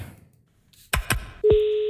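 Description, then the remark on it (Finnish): Two sharp handset clicks, then a third click followed by a steady electronic telephone tone that holds loud to the end as someone places a phone call, with no talking. “No koitetaan soittaa tonne ja kysytään jeesiä.”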